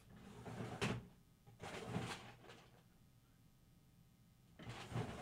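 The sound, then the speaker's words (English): Drawers slide open and shut, about four brief rattling scrapes separated by quiet pauses, with a longer lull before the last one near the end. “There's drawer upon drawer upon drawer of all of this stuff.”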